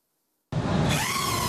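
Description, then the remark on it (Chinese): After a brief silence, a micro drone abruptly takes off, its propellers giving a loud, steady whirring rush with a faint high hum that rises slightly in pitch. The propeller airflow pollinates strawberries in a trial at a Sydney campus in Australia. “微型无人机起飞，靠着螺旋桨产生的空气流动帮助草莓授粉。”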